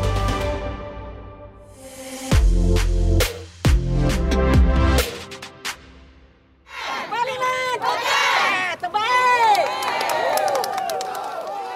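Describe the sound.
After a short burst of music, a large crowd of supporters of former Prime Minister Najib, gathered at a courthouse, takes over. Many voices shout, chant and cheer together, loud and continuous to the end.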